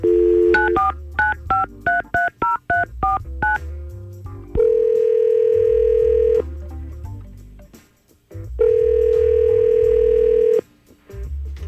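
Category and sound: signal or alarm, telephone dialing and ringing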